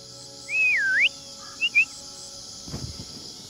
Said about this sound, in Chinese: U 型的声场那儿，我们等会儿鸟吧，或者我们吹个口哨把它们吹醒。